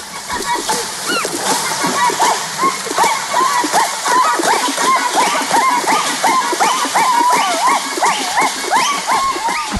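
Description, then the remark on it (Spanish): Women in the islands of Melanesia drum rhythms on the water surface with their hands, the left keeping the same pulse and the right playing the rhythms: rapid, rhythmic slaps and splashes continue throughout, dense and fairly loud, with steady pulsing patterns and overlapping strikes, busy with occasional voices mixed in. “la mano izquierda la utilizan generalmente solo para mantener el mismo pulso y con la derecha realizan los diferentes ritmos”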